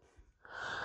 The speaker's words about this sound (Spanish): salud, ya te di alergia.